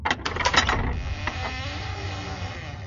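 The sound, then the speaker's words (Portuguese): A door in a house, the door to the baby's room, is opened cautiously: a quick run of mechanical latch clicks and rattles, followed by a long, low, strained creak that slowly fades. There is no talking. “Baracho então acena com a cabeça de forma afirmativa e abre a porta com cautela.”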